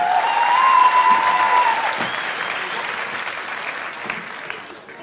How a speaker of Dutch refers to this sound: Heel goed. Even applaus voor deze assistenten.